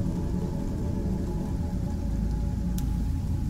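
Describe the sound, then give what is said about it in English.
Steady, dense patter of rain heard from inside a car at a graveyard, a continuous low rumbling wash with a faint brief click near the end; no one speaks. “Wow, I didn't even think about that because it's raining.”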